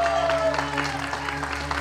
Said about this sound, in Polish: Wielkie brawa, przywitajmy ją wszyscy razem.